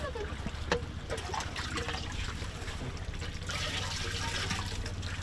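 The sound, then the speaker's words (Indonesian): Filtered water from the Mandar River in Mandar pours and trickles steadily into a container, a continuous splashing flow with a low hum in the background and a brief clink near the start. “Nah ini air yang sudah disaring menurut kepercayaan warga di Mandar di Sungai Mandar ini air dari Sungai Mandar ini bisa langsung diminum.”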